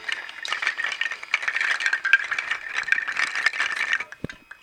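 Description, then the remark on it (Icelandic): A hanging mobile made of hoof nails gives a dense, continuous clattering rattle of many small hard nails knocking together, bright and busy for about four seconds before stopping abruptly with a final low knock. “og húanagla”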